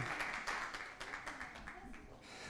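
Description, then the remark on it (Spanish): A crowd applauding children at a Christmas celebration, with dense, steady clapping that stays fairly even in loudness for the whole stretch, and a few voices mixed in beneath it. “Otro, otro fuerte aplauso para nuestros chiquitines, por favor.”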